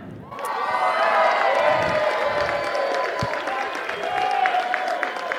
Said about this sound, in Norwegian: Ta varmt velkommen, eller gi en god applaus og gi, en, uh, gi et lite ekstra brøl til RB Sporten.